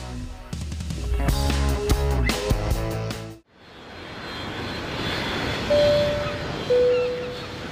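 airplane engine in flight

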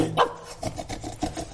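dog barking

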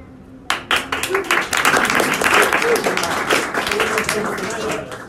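audience applause

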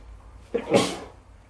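sneeze

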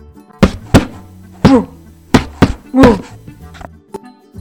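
pounding on a door

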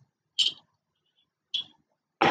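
birds chirping outdoors

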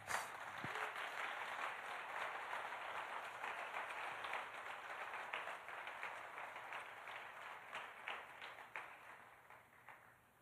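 audience ovation applause

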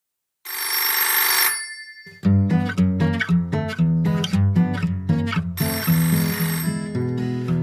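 telephone ringing

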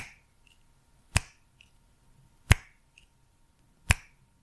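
finger snapping

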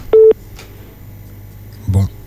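telephone keypad dialing tones

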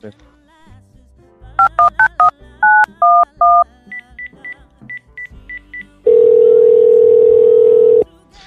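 telephone dialing tones

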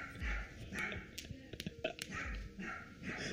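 small dog barking

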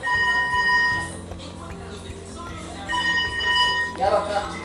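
telephone bell ringing

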